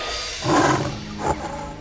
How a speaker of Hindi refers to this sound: खरगोश शेर के पास देर से पहुंचल खरगोश के देख शेर और गुस्सा से हो गई और दहाड़ के बोललस